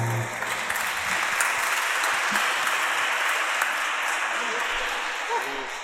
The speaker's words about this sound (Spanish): recibirla con un aplauso.